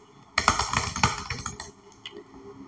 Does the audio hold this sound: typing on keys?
yes